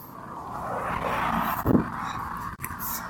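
A car rolls past, a steady broad road noise that holds for a few seconds, with a brief thump partway through and no one talking.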